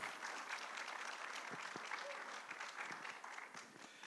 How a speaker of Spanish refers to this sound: Un aplauso para él.